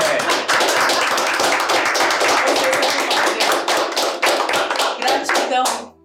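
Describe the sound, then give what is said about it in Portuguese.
A loud, sustained standing round of applause for a guest: many hands clapping in a dense, steady patter for about six seconds before cutting off abruptly. “Uma salva de palmas.”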